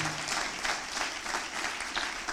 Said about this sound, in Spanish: Si usted lo cree, denle un aplauso fuerte al Señor Jesús. Vamos, un aplauso mejor al Señor.